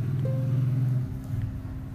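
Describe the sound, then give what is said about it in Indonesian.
Motorcycle engines drone steadily outside, a loud low rumble with a whining tone; one engine fades after about a second while another keeps idling and revving in the background. “aduh sorry rese banget motor-motor begini Tuhan”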